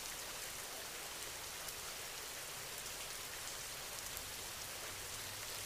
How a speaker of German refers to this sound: Dein Körper fühlt sich so richtig entspannt an, je mehr du dem Regen zuhörst.